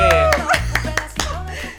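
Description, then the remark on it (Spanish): A handful of sharp hand claps welcoming guest Carolina Ramírez, in Spain for the Platino awards, about five spaced out over under two seconds, fairly loud, with people's voices and laughter-like chatter running underneath. “Fuerte aplauso, ¿no?”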